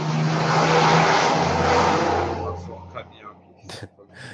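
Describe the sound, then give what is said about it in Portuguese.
A car roars past quickly, a broad rushing engine and tire noise that swells loud and then fades away within a few seconds, leaving quieter background sounds. “Deixa só então, passar tá um carro aqui rapidão.”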